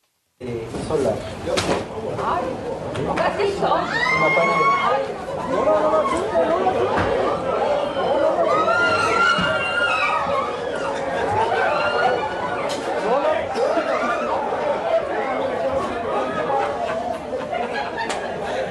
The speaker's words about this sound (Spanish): en donde se pudo ver cómo dos mapaches cayeron del techo, luego de que una parte del techo se viniera abajo, lo que causó pánico, gritos, miedos y también una que otra risa. Vamos a escuchar ese momento.